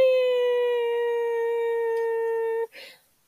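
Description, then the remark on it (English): A voice imitates a squeezed rubber chicken dog toy with one long, steady, nasal squeal that holds at the same pitch for over two seconds, then cuts off into a short breathy gasp. “You know those dog toys where you like, if you squeeze it, and then it like, then let go, it like sucks up the air around you and it makes a weird noise.”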